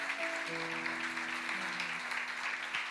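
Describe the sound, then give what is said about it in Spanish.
A church audience claps together for the Lord in a dense, steady wash of applause, with a few low sustained tones humming underneath throughout. “Give a strong hand clap to the Lord.”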